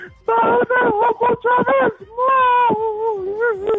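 A child cries loudly and up close, with a run of choppy, sobbing bursts that break into one long, wavering wail.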